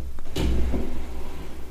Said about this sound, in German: Und ich würde von dir wollen, dass du mal deine letzte Schublade auf deiner Seite öffnest.